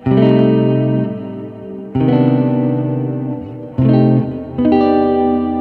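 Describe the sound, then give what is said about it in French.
A heavily effected electric guitar plays a slow phrase in C melodic minor of sustained, chorus-drenched chords and notes, with four strong attacks that ring out and fade, and no voices. “on va partir en fait de Do, donc la phrase est en Do mineur mélodique, d'accord Donc écoutez bien la sonorité.”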